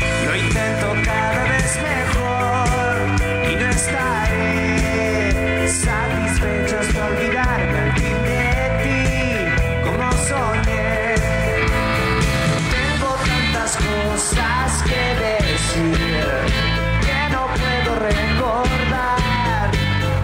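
A pop-rock song plays steadily and loudly throughout, with a full band sound, driving drum hits and sustained guitar and bass tones filling the mix, no talking over it.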